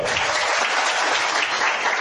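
A crowd claps steadily for a woman being introduced, a dense, bright wash of many hands applauding at a constant, fairly loud level with no talking over it.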